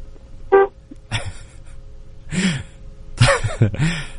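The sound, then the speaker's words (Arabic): A short, bright car horn toot sounds once near the start, honked by a woman driving while on a phone call through the car speaker, followed by several rougher, noisy bursts at irregular intervals, moderately loud, with no clear talking. “اه سبيكر سياره ايوه ايوه طب دقي بوري”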